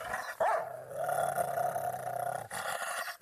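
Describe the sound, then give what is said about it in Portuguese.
A purebred dog, used to threaten people in Mozambique, growls steadily and menacingly for a couple of seconds, fairly loud, with sharp bark-like bursts at the start and end and no voices present. “usamos a lei das manifestações, ficam a nos ameaçar com cães de raça.”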